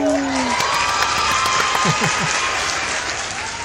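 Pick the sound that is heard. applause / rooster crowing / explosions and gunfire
applause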